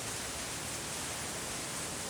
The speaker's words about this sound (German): Du spürst die kühle Nässe unter deinen Fußsohlen. Du spürst Regen überall auf deinem ganzen Körper.